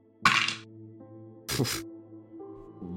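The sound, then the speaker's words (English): Two short, crisp clattering bursts of dice being rolled in a game, tumbling onto a hard surface about a second apart, over a low steady background hum. “Actually, can you, as you are pulling up, roll to put a name to a face?”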